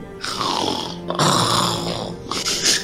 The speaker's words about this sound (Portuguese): Ronrona. Ele começa a ronronar.